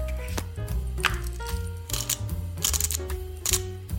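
A pepper grinder gives several short, crunchy ratcheting twists, fairly crisp, peppering a mashed avocado mixture like guacamole, over steady background music; no one speaks.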